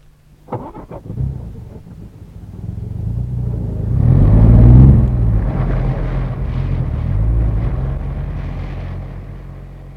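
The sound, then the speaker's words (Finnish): A sharp thump is followed by several engines rumbling to life, building into a loud, sustained low drone as a convoy of cars, with His Excellency's car in the middle, pulls away together to drive straight back to Anrivilli, slowly fading at the end. “Minä ajan ensimmäisenä, hänen ylhäisyytensä auto asettuu keskelle ja te varmistatte jälkipään, everstikompa.”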